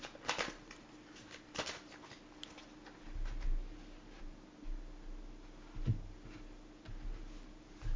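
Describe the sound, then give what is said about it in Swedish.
Tarot cards being shuffled: a quick burst of crisp riffling snaps at the start, then softer intermittent slides and taps as the deck is handled, with a low steady hum underneath. “nu har jag blandat och så lägger jag upp, eh, jag frågade uppåt och så skulle jag lägga fem kort hörde jag, så då gör jag det.”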